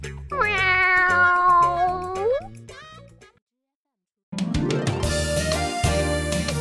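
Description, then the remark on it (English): Puss the cat gives one long, drawn-out meow that wavers and rises at the end, followed by a short silence and then a loud, busy wash of sound. “Am I better than a mill or a donkey? Of course, Puss.”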